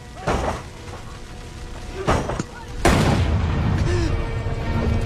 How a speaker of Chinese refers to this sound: 砰的枪响，结束了余生